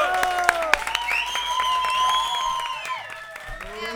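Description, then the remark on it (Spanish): An audience gives a big welcoming applause to a guest, with many hands clapping at once in steady, dense applause, while excited cheering and whooping voices rise and waver over the clapping throughout. “Un aplauso muy grande Bienvenido.”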